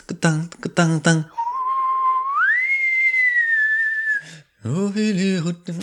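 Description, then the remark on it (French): Someone whistles the theme tune of a TV show, clear: a steady note that glides up to a higher, long-held pitch. Talking comes just before and right after the whistling. “hey, moi j'étais petit cul là, quand ça jouait, fait que c'est sûr que j'ai entendu le thème, là, tant, tant,”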